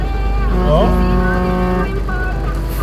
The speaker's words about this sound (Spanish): Les recuerdo que ustedes están escuchando de pronto ruidos extraños porque voy manejando y voy grabando esto con mis manos libres.